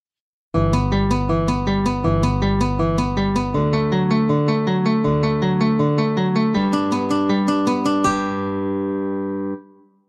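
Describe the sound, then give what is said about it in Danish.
A guitar plays an Alberti bass figure in a minor key: quick, evenly repeating broken-chord notes shifting through a few harmonies for about nine seconds, ending on a ringing chord that fades. “Og hvis man så også endda giver den til en guitar, så i stedet for et klaver, så bliver den også lidt, lidt federe at høre på.”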